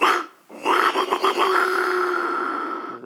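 A jaguar whistle, a shamanic tool used for cleansings and healings, is blown in a rough, growling roar: a short harsh burst, a brief pause, then a long sustained raspy snarl that fades slightly, mimicking a big cat's roar.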